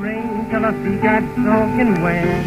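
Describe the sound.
An old blues record plays steadily at moderate volume, its muffled, narrow sound carrying a singing voice with sliding notes over simple accompaniment.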